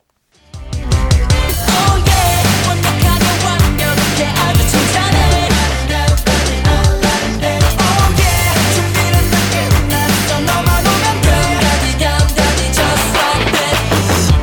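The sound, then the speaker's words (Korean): A soundtrack ballad from the Korean drama Beethoven Virus, played as a hint song in a KBS Cool FM radio quiz, plays at a full, steady level after a brief silent start, with layered instruments and a regular pulse running throughout, no talking over it. “힌트송 바로 띄워드릴게요.”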